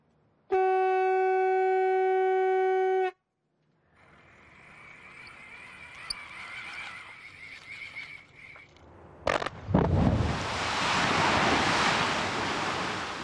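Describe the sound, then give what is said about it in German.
A blaster's steady, buzzy warning siren sounds for a few seconds, then a low rumble builds before a sharp blast in a limestone quarry, set off with a dynamo, bursts out, followed by a long roaring rush as about 3000 tonnes of lime sandstone break from the slope. “Dann zündet er die Ladung mit dem Dynamo.”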